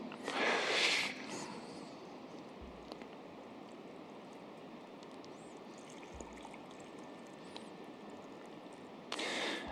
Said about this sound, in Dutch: Nou, ik ga twee bekers vullen met water. Oh, mijn tas is nu nat.